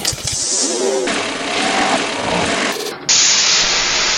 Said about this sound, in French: Oh, c'est pas vrai! Oh, j'ai fait surchauffer le moteur et je suis coincé! Coincé seul dans ce désert bouillant!